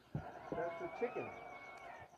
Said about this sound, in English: yeah, shoo the fucking chicken out of there. There are two of them. I see a white one in there too.